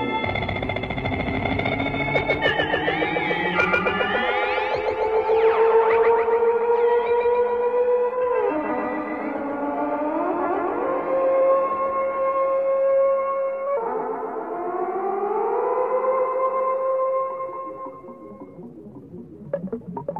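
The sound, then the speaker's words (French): Eerie electronic science-fiction soundtrack tones from the film Forbidden Planet, whose soundtrack is made only of electronic sounds: sustained warbling pitches that glide up and down in overlapping layers with heavy echo, playing continuously and fairly loud with no voices, fading near the end. “Quatre ans après, Planète Interdite, aventure 100% spatiale, serait le premier film où la bande son est composée uniquement avec des sons électroniques.”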